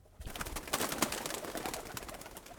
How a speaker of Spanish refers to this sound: Esa noche en el hotel, el descanso que pensaban tomar los turistas se ve interrumpido por un ave que revolotea dentro de la habitación.